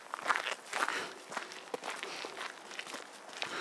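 Quick footsteps crunch along at a brisk walking pace, fairly steady, each step a short scuffing hit with faint rustling between them, no voices present.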